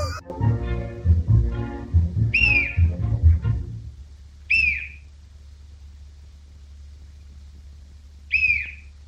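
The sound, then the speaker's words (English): Three short, high whistle toots from a swallowed whistle at a party in a millionaire's house sound at uneven intervals, each a quick chirpy squeak; the first comes over a stretch of people talking, the others stand out alone against quiet. “and then later in the movie, when he uh, they're having that party at the millionaire's house, and he swallows yeah. that whistle.”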